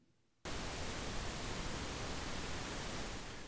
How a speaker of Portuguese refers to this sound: E eu até tentava, à noite ia lá nas ondas curtas, buscava, mas muita interferência, não dava para ouvir programação de rádio de fora em São Paulo.